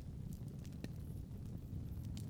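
A campfire crackles steadily with a low rumbling roar, punctuated by a few sharp, scattered pops and snaps, with no voices.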